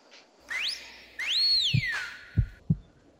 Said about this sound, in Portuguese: Eu adoro esse assobio. Eu adoro esse assobio acompanhado desse, desse meu coração radiofônico,